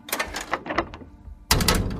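A series of short mechanical clicks and clunks, like a lock releasing as the last of five symbols is put in place, followed by a louder scraping burst as a heavy door swings open, fairly loud.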